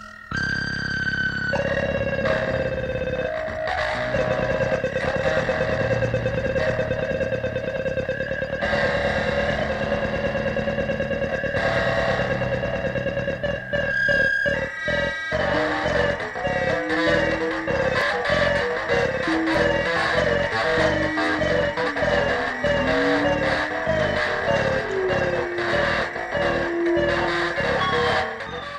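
Experimental electronic music played through the Wall of Sound, recorded in Miami on June 23, 1974, loud and dense: layered sustained drones and whining tones give way midway to choppy, stuttering pulses with low notes sliding up and down in pitch. No voices.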